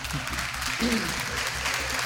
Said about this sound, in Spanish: En estos momentos yo invito a los diputados acá presentes a que nos pongamos de pie y les vamos a dar un aplauso de bienvenida a los youtubers que ahora nos acompañan.